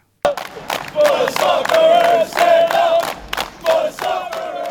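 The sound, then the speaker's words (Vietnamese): A crowd of Australian Socceroos football supporters erupts into a loud, sustained roar of cheering and shouting as Australia qualifies for the World Cup in Qatar after a penalty shootout. The noise surges and dips in waves over several seconds, with many voices blending into one continuous din. “Tôi nghĩ chúng ta vừa được chứng kiến mà bùng nổ tuyệt vời nhất đêm nay của những người ủng hộ Úc.”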